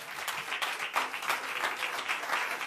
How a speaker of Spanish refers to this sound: Vamos a dar unas palmas a Dios, hermano, ¿verdad?